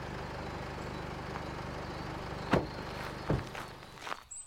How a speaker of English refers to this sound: Whoa. who's oh, pulling up? I don't recognize that car.